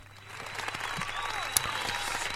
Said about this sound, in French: Tiens, on t'applaudit.